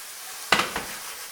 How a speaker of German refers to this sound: Ja, ah, Salz dazu, durchrühren.